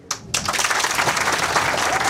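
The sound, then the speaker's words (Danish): An audience breaks into applause, a dense, steady patter of many hands clapping at once that starts abruptly and holds at a fairly loud, even level throughout, clapping to show they see the Danish word 'provins' positively. “Må jeg lige høre en klapsalve fra publikum, øh, hvis I opfatter ordet provins positivt?”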